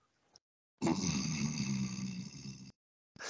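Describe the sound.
A voice imitates a loud snore: one long, rasping, throaty breath lasting about two seconds, forceful, with no speech.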